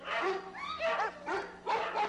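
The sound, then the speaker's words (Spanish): Dogs bark in a run of loud bursts, some yappy and high-pitched with a whiny edge, overlapping one another with barely a pause between them. “Y esos malditos perros que no se callan.”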